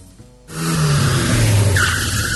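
A loud car sound effect bursts in after a brief quiet intro: an engine roars and tires squeal in a sharp, sustained skid, with a high-pitched screech rising near the end.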